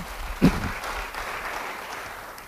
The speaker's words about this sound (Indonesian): Beri tepuk tangan yang baik bagi dia.